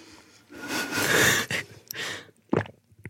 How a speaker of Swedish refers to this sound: Okej, okay, jag ska också svälja i micken.